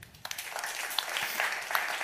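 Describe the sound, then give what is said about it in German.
A burst of audience applause for the New York Giants' performance: dense, crackly clapping from many hands at a steady, moderate level, with no voices over it. “Also nochmal ein Applaus, glaube ich, für diese Leistung der New York Giants.”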